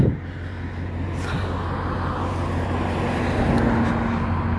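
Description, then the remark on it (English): A car rumbles by close on the road, a steady loud roar of engine and tire noise with a low droning hum underneath, and no one speaking. “Oh shit, I'm gonna get run over. Oh, ooh, that was close.”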